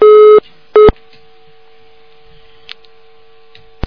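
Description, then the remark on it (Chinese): Two loud beeps of a telephone busy tone after a dropped call, steady mid-pitched and harmonic-rich, then a faint lingering hum with a couple of soft clicks; no one speaks. “哎呀，真可惜，掉线了。”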